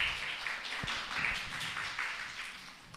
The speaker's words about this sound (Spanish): Eh, qué bien se porta la niña. Un aplauso porque se porta muy bien bebé.